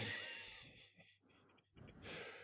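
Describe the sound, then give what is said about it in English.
A long, breathy sniff of a candle lid, fading out, followed by a quieter pause and then a second short inhale near the end. No one speaks. “… sniffing a candle lid”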